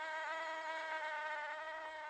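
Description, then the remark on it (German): A mosquito's thin, high-pitched whine drones steadily, holding an even pitch with slight wavering as it flies around a room, with no voices or other sounds. “Sie hatte uns bereits mehrfach gestochen und labte sich an ihrer Blutmahlzeit, während sie arrogant durch den Raum schwirrte.”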